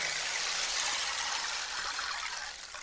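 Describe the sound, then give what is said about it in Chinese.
A rainstick of European-modified design pours out a steady, bright rushing hiss like ocean waves, fairly loud and continuous for about three seconds, easing off slightly at the end, with no voices. “它这个就是 很像海浪的声音，给大家听一下，”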